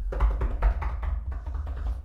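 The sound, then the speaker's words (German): A quick drum roll tapped out by hand on a hard surface: a steady flurry of dull knocks running for about two seconds, with no voices. “Okay, äh, Trommelwirbel bitte. Klopf, klopf, trim, trim, trim, trim.”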